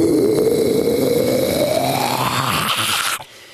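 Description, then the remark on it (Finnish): A person demonstrates a low, raspy death metal growl, one sustained gritty roar lasting about three seconds that slowly rises in pitch before stopping abruptly, with no other talking. “Ja, ja opeteltiin örisemään, koska tietysti death metal...”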